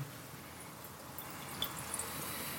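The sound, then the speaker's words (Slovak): Dark ruby-red wine, briefly aired in a carafe and slightly chilled, pours into a glass in a soft, steady trickle lasting a couple of seconds, with a few faint drips and splashes near the end. It is quiet, and no one speaks. “Troška alchymia s nalievaním.”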